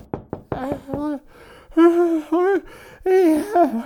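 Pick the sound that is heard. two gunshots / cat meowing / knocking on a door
knocking on a door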